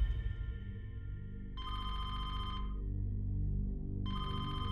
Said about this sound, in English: Cathy's phone rang out of the blue on a Friday morning.